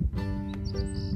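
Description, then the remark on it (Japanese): Several brief, high bird chirps sound in quick succession outdoors in Nagano, Japan, on a fine but still cold early-spring day, faint over a steady low background hum. “えー、僕今まあ、聞こえてる方もいるかと思いますが外から撮っていて、まあ、鳥のさえずりとか聞こえてすごくいい天気になってきたなと思って、えー、まだまだ寒いんですけれども長野も春が近づいてるなっていう感覚がすごくあります。”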